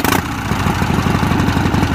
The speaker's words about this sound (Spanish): Harley, ¿no? Sí. Una moto.